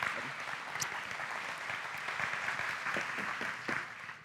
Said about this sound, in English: Aww, Can you give her a big round of applause?